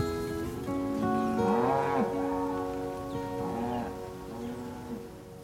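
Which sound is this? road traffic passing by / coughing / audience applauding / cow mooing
cow mooing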